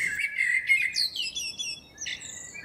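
Several birds sing at once in a busy chorus of bright chirps, trills and warbles, overlapping continuously over a soft background hiss, with no voices.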